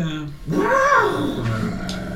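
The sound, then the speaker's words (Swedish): An elephant at a zoo lets out a single loud roar that swells and falls over about a second, with a rough, rumbling undertone that lingers after the call. “En massa stora ljud. Är det elefanter? Ja, det är det.”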